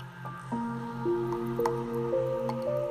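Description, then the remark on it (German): Water drips steadily in a small grotto in a cave, with many stalactites hanging from the ceiling, each drop a clear plinking tone with a short echo, falling every half second or so over a low, continuous ambient hum. “Nach einigen Schritten gelangt ihr zu einer kleinen Grotte, in der viele Tropfsteine von der Decke herabhängen.”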